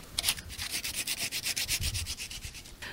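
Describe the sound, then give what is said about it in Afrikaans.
Rhythmic back-and-forth sanding of a wooden sea-animal carving, roughly a dozen quick hissing strokes at a steady pace, bright and scratchy, with no talking. “Hulle word ook goed geskuur, maar as jy as jy hulle nou skep, is dit met die ehm um, hoekslyper of met 'n mes of hamer en bytel om die walpers te maak, vat ek die rouste hout.”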